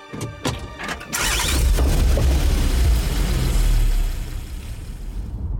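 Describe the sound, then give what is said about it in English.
A few sharp knocks like a car door closing, then a car engine starts and revs with a low rumble before easing off as the car pulls away from a quiet family home on Banjo Street, its driver setting out to search the neighborhood. No one speaks. “She leaves the family's quiet home on Banjo Street and gets into her car to search the neighborhood for her daughter.”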